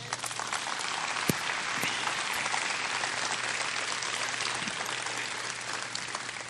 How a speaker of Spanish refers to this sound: Dale un fuerte aplauso, Señor.